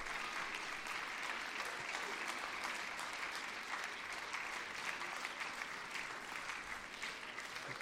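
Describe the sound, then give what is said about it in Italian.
Sustained applause at a concert from a large audience and all the students as Luca Canonici comes out, a dense steady clatter of many hands clapping at once, loud and continuous for several seconds with no pauses. “Eh, in questo momento sta uscendo Luca Canonici, viene applaudito da tutti i ragazzi, e dal pubblico, eh, stanno ringraziando”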